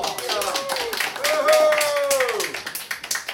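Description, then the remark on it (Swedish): Steady applause from a crowd, dense overlapping claps throughout, with a rising-then-falling whistle or cheer ringing out over the clapping in the middle. “Ja, en applåd för henne.”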